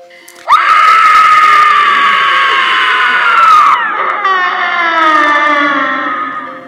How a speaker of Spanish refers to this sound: Los verdugos soltaron los lazos y desamarraron las manos de doña Luisa, quien lanzó un grito espeluznante.